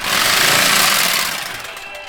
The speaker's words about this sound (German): Ein Auto ist auf den Hof der Foggenbergmühle gefahren.